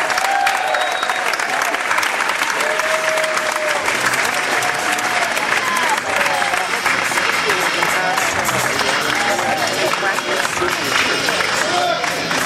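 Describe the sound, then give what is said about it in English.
A large audience at the LA Music Awards applauds steadily with scattered cheers and whistles as the Hollywood Fame Award for Lifetime Achievement Music Industry Publication is presented to the publisher of Music Connection magazine. The dense clapping is sustained at full volume throughout, with no one speaking over it. “Let's hear it loud for him.”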